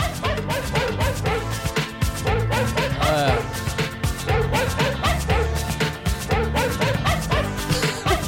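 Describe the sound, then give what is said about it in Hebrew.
Sampled dog barks repeat in rhythm over a thumping dance beat and steady bass, woven into an electronic song by a German musician as a loud, punchy musical hook. “כמה שיכור אתה צריך להיות בשביל להיכנס לאולפן ולסמפל כלב, כאילו.”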